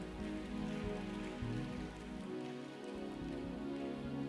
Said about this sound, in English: Someone slap your hands and give God praise.